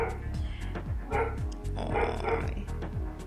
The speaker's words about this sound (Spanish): ¿Se escucha mucho el perro? El perro. Sí.